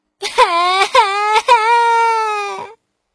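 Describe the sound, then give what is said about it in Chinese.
A voice imitates a baby owl crying: a loud, sustained wailing sob broken by three or four quick catches of breath, then one long, steady, slightly falling wail that trails off. “可是小家伙还是摇摇头，继续大哭。”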